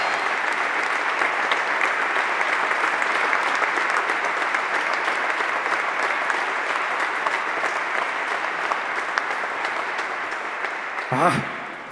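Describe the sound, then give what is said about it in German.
Sustained, dense applause from a large audience welcoming the hosts in a glass hall at the Sparkasse in Wuppertal, steady and loud throughout, with a brief sharp sweep of another sound near the end as the clapping begins to thin. “vielen, vielen Dank für diese sensationelle Begrüßung hier in dieser wunderschönen Glashalle in Wuppertal bei der Sparkasse.”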